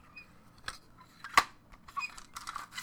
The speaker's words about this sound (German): Also das hört sich an wie eine MC. Es ist eine MC.